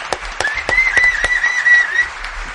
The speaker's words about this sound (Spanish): Muy bien, un aplauso, un aplauso.